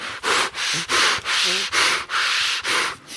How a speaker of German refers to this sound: Ich atme immer noch in die Papiertüte, einen schönen guten Tag.